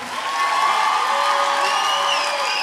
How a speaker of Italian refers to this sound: Un grande applauso a tutta la band